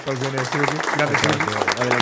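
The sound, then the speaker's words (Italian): Crowd applause sound effect, a steady crackling wash of clapping running underneath a louder voice that holds sustained, pitched tones throughout. “Sì, sì, poi è come se ci fosse la folla dietro.”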